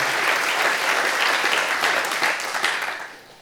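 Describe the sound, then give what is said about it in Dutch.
A crowd at a morning gathering applauds the Ukrainians present, a dense wash of many hands clapping steadily at an even, fairly loud level, then tapering off toward the end. No one speaks over it. “Even een applaus voor de Oekraïners die vanmorgen in ons midden zijn.”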